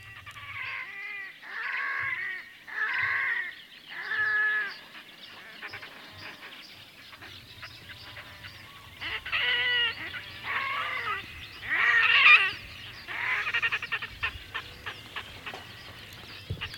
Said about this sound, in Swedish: undrar, hur låter gråhakedoppingen och vad kan ni berätta om den?